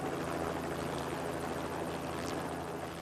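A helicopter hovers steadily overhead, its rotor producing a continuous, loud whirring drone with rhythmic blade chop that holds constant without fading, no voices present.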